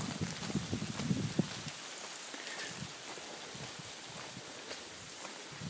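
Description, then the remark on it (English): Steady rain falling outside a tunnel hisses throughout with a dense, even patter, while a few soft low thuds sound near the start. No one speaks. “I wonder if you'll be able to hear the rain inside the tunnel.”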